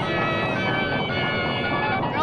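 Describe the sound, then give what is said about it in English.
Bright, busy chiptune-style video game music, redone from the game, plays continuously at a steady loud level, dense with layered melodic tones, behind a Japanese TV commercial for the Mega Man (Rockman) Famicom game. “Listen to that music.”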